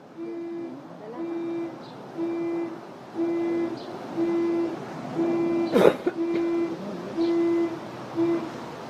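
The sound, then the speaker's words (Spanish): The alarm of a white car blares outside in a steady loop of short, low, honking beeps, roughly one per second, fairly loud and continuous, with a brief clatter partway through. “Ya nos están llamando. El auto de blanco.”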